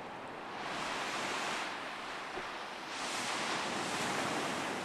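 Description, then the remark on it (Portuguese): Ocean waves wash onto the shore in broad, hissing surges, two swells rising and falling over a few seconds, with a steady roar of surf and no voices, heard on a hot, sunny day during a heat wave as people leave their car to prepare for a boat trip. “Dá para ouvir as ondas já.”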